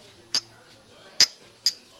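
Glasses of mezcal clink together three times in a toast, each a short, bright, ringing chink, the last two close together, over a faint low murmur.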